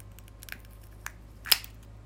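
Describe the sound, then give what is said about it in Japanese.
A few small, dry, crisp cracks, spaced out, with the last one the loudest and sharpest, as an emptied egg's shell is broken into smaller pieces. “殻のこの割る音。ね、カシュって音、たまりませんね。”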